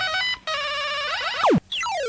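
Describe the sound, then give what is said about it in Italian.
A bright electronic telephone ringtone plays alone: a quick run of synthetic, beeping melody notes, then a sharp falling sweep and a rising glide, loud, for about two seconds. “Su questo squillo cambiamo genere, base ed anche cantante.”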